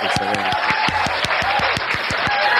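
A burst of steady applause from a group, dense overlapping claps at a fairly loud, even level throughout, with a few sharper individual claps standing out in a quick rhythm.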